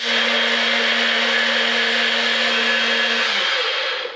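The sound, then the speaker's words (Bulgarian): A blender purées garlic with water into a paste, running steadily for about four seconds, a loud, dense whirring with a constant motor hum, then winds down at the end. No one speaks. “За нашата рецепта с боба, аз съм иновирал това, че правя чесъна на паста с вода, защото да не стои истински чесън. И сега ще чуете как го плендвам.”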